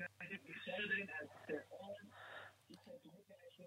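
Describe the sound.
Muffled, band-limited speech from a caller in Tehran comes through a phone line during a call-in program, with a television playing underneath, plus a steady low hum throughout.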